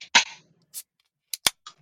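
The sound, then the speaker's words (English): Cans of non-alcoholic beer, including an Untitled Art Non-Alcoholic S'mores Dark Brew from Wisconsin, cracking open: a loud hissing pop, then a few short, sharp metallic snaps spaced over the next second or so, with no talking. “So let's let's crack these puppies.”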